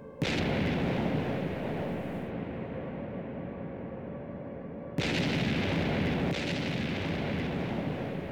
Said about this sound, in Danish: Bornholmerne kryber i skjul for de faldende bomber. De kan høre ødelæggelserne omkring dem.